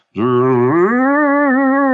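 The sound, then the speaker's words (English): A single voice hums a sustained, wavering, spooky tone mimicking a theremin, sliding upward partway through and then holding a steady vibrato for about two seconds, loud. “Who else would use a, a theremin that”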